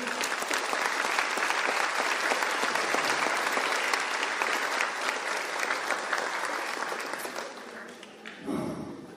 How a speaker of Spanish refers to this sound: Un fuerte aplauso para ustedes.